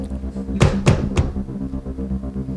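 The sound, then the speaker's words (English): Three firm knocks on a wooden dressing-room door, evenly spaced, heard over a steady low background hum with no one speaking. “Um, okay, so there's a door on the right over here.”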